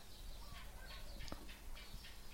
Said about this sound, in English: And for me, just then, the sound of the bird became predominant. Just include that.